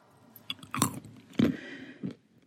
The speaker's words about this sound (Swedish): Knaprar du på någonting?